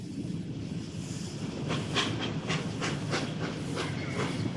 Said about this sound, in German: Die Luft knisterte vor Spannung, als am frühen Morgen des 5. Juli 1841 die Lokomotive in den Bahnhof von Leicester einfuhr. Neun Waggons zog sie hinter sich her.